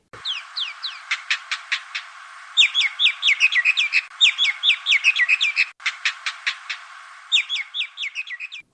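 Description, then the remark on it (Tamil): Indian myna calls ring out clearly, a busy mix of rapid chirps, whistled notes and rhythmic clicking phrases repeating in bursts with no one talking. “ஆனால் ஆஸ்திரேலியாவில் மைனா என்றால் பலருக்கு கோபம் கொப்பளிக்கிறது இதற்கு பல காரணங்களை நாம் பட்டியலிடலாம் அதற்கு முன்பாக எப்படி இந்த இந்திய மைனா இனத்தை கருவறுப்பது என்று பல சிட்டி கவுன்சில்கள் கையை பிசைந்து கொண்டு இருப்பதுமான கதையை கேட்போமே”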